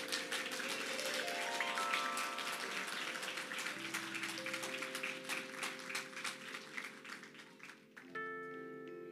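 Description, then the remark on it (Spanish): A church audience applauds the speaker's three daughters as they stand, a dense wash of clapping hands lasting several seconds, with sustained organ or keyboard chords playing underneath and shifting near the end. “Si me le pueden dar un aplauso a estas chicas.”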